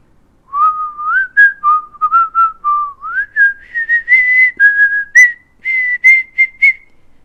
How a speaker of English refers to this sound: The following morning, Mr. Nosey was out walking along Tiddletown High Street when he heard somebody whistling behind one of the closed doors.